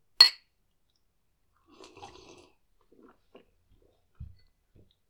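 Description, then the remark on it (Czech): A sharp glassy clink, then a brief, soft gurgle of liquid being poured into a glass for a toast, followed by a few small clicks and a dull thud as something is set down. No one speaks. “A ještě do druhé nohy.”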